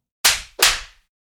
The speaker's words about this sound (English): Eleven. She slapped me.